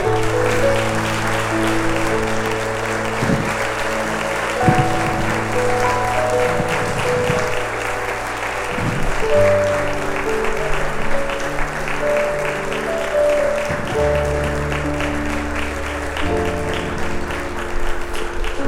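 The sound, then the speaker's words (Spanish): Sustained crowd applause given to God, a dense steady wash of clapping that carries on for nearly twenty seconds, with a low sustained tone underneath and no speech over it. “¿Habrá alguien que cree que Dios se merece un aplauso en este momento?”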